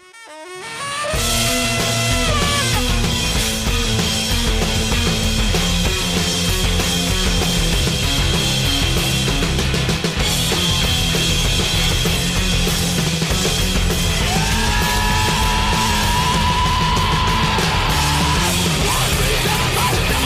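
A live jazz metal band plays on Norwegian television, a few months before its album's release, loud and dense, with distorted guitars, heavy drums and sustained melodic lines, kicking in after a brief moment of silence and driving on without a break.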